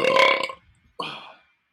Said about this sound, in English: I guess you don't speak burp. That was me asking.